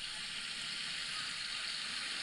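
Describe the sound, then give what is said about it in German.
A steady, unbroken rush of running water playing from a video, like a tap or stream, hissing evenly throughout at a moderate level with no voices. “Das ist noch Wasser.”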